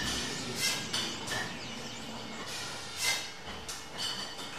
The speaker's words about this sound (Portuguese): Aqui já estamos em pleno processo de engarrafamento na Pico Wines, a adega cooperativa do Pico.